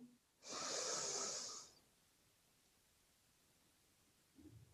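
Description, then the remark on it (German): A single deep, breathy inhale through the nose during a guided breathing exercise lasts about a second, fairly loud with a hissy texture, followed by quiet stillness and a faint low murmur at the end. “Und noch einmal durch die Nase ein”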